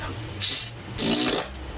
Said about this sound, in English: it was about time I did some more queefing. Yes. Or pussy farts.